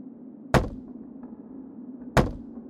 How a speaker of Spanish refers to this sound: El golpeteo se mantuvo por diez minutos, subiendo su intensidad hasta que, antes de detenerse por completo, sentí que quien sea que lo hacía derribaría la puerta.